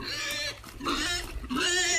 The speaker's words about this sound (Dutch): Het is zondag laatste zondag in oktober en eh, we staan op de community farm en de varkens krijgen juist te eten.